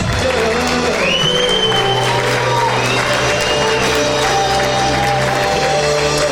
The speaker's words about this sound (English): But I just, I just want to give glory to Him. Can we just give Him a clap offering just to thank you, Jesus?